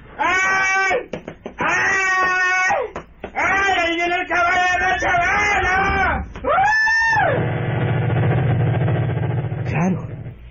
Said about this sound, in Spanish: El pobre Concho ni podía hablar, amigo. El corazón le latía rápidamente y lo que hizo fue empezar a dar gritos, gritos y más gritos de terror.